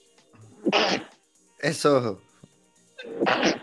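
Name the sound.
sneezing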